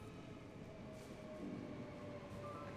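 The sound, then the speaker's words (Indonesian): A steady rumble of a light rail train (LRT) at a station, with a continuous low mechanical drone and faint tonal hums, unbroken throughout, with no talking. “Saya mau naik LRT dulu ya.”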